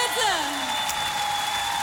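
An audience applauds after a live song performance in a dense, steady wash of clapping, with a few gliding whistle-like tones at the start and a faint sustained tone underneath.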